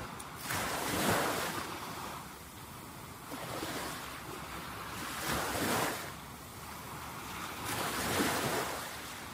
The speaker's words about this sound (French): Voilà, je vous fais euh, participer pour les dernières secondes à la mer qu'on entend.